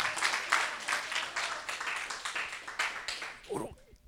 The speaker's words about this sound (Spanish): Dele palmas al Señor, aleluya.